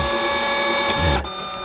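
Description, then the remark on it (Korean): A fax machine receiving a page: steady high electronic tones over a grinding mechanical whir, with a louder rattling burst near the end before the hum settles. No voices. “팩스 들어오는 소리입니다.”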